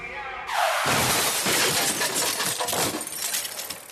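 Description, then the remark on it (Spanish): A car driven by a drunk driver swerves into the bike lane and hits two cyclists: a brief falling swoosh gives way to a loud, sudden burst of shattering glass, followed by several seconds of clattering, tinkling debris that slowly thins out. “Mónica invade el carril de ciclistas atropellando a dos.”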